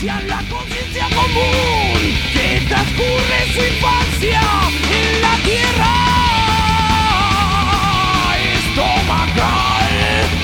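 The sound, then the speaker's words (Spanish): A loud rock song plays steadily throughout, with raw, shouted vocals riding over a dense wall of distorted guitars and driving drums, no talking over it. “Qué buen tema que está sonando de atrás.”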